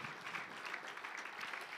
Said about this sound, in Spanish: ¿Cuántos dan un fuerte aplauso al Señor por su bendición en nuestra vida? Qué tremendo es todo esto. Gloria al Señor, gloria a Dios.